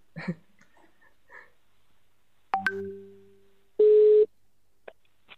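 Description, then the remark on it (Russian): Telephone dialing tones as a phone call is placed to someone from the company Genesis: a few faint electronic blips, then a sharp tone that rings and fades, followed by a loud, steady half-second beep and a last soft click. No one speaks. “наберу просто по телефону и по телефонной связи тогда поговорим”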